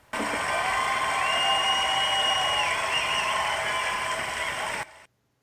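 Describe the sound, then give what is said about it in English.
A loud, dense round of applause, with faint whistle-like tones riding on top, holds steady for nearly five seconds, then cuts off abruptly into silence. “That was a round of powerful applause that stopped right on a dime.”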